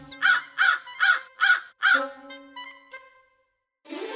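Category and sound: vocal imitation, imitated loud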